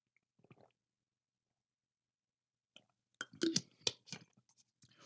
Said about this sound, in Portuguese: Pensa aí, enquanto eu bebo minha água, você pegou o quê?